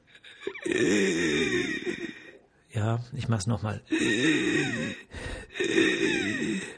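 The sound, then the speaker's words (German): A person imitates stridor, a wheezing, rasping, whistling inhalation, with drawn-out strained breaths repeated three times and a short spoken phrase between attempts. Fairly loud. “Ähm, ja, zweithäufigstes Symptom ist ein Stridor, also ein Atemgeräusch, was die meisten so mit Pfeifen ähm, oder ja, was kann man noch sagen, Röcheln, hm, Pfeifen, Röcheln, also so äh, ein Geräusch.”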